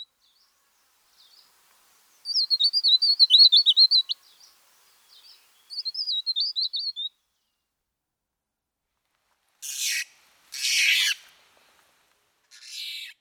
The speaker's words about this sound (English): Unlike music, however, my recordings by themselves fail to evoke any emotions or tell a story because, well, they're just bird sounds.